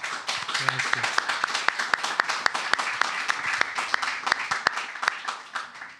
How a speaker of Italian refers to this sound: Buon incontro a tutti e accogliamo con un bel applauso il nostro ospite di oggi.